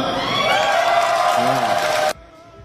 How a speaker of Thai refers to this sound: เป็นเสียงกรี๊ดต้อนรับกันอย่างมากนะคะ ในงานถแถลงข่าวที่เกิดขึ้นค่ะหลังจากที่เปิดตัวเฉลยออกมา